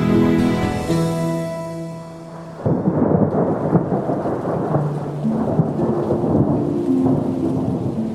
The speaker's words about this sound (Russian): В ненастных осенних сумерках ярко сверкали молнии, грозно грохотал гром и, что есть силы, хлестал по крышам холодный октябрьский дождь.